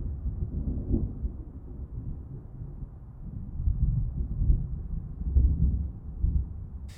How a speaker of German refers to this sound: dass gerade draußen ein Regen anfängt. Es fängt langsam ein leichtes Gewitter an und du schläfst ein.